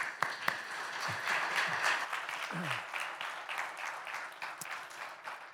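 A crowd applauds steadily for several seconds, a dense wash of many hands clapping at once, with a brief throat-clear and a few low murmurs mixed in.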